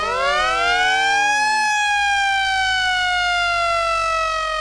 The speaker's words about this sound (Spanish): Nada va a poder detener que comience en estos momentos. Suenan las sirenas porque empieza a caer la explosión